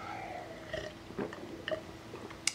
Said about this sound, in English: I need a sip of water.